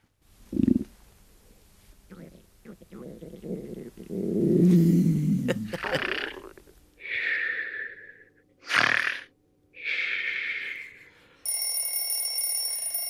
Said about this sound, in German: Na, da ist äh, er wieder, Knurren, der Wecker. Magenknurren, äh, Schnarchen und Wecker die verrücktesten Körpergeräusche.